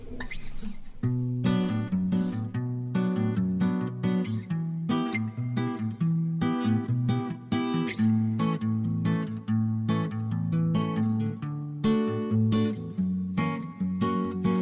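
An acoustic guitar plays alone, with steady, rhythmic strummed and plucked chords and a full low end. It is fairly loud and continues throughout with no voices.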